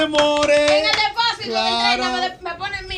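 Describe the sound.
Applause from an audience, a steady patter of many hands clapping for about three seconds, mixed with loud sustained voices calling or cheering over it.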